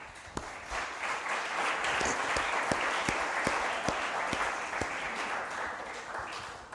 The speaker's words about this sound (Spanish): Amén. Denle un aplauso a Dios. Venga.